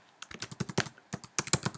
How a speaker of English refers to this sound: Now, you're going to hear me clicking away and typing stuff.